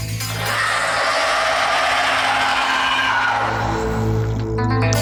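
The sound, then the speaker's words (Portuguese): A creature's scream rings out as a loud, harsh, grating shriek that holds steady for several seconds, unbroken, with no voices around it. “E vocês ouvem novamente esse grito.”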